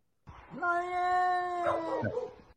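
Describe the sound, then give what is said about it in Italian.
A cat lets out one long, drawn-out meow, loud, holding a steady whining pitch for over a second before sliding down at the end, with no talking. “Gatto?”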